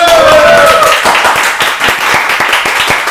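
applause

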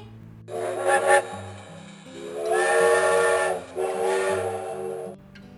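steam train whistle

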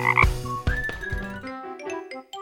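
frog croaking

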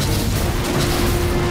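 explosion

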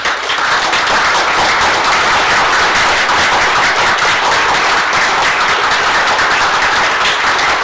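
audience applause

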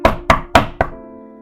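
knocking on a door

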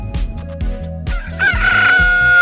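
rooster crowing

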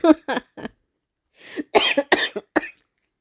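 coughing

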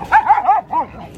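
dog barking

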